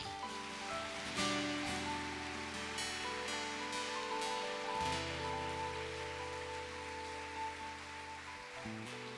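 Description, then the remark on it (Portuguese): A large church audience claps steadily as applause to the Lord at a Thursday service, a dense, continuous wash of applause over sustained chords from a keyboard or organ, with the clapping swelling and easing slightly but never stopping. “Aplaude ao Senhor.”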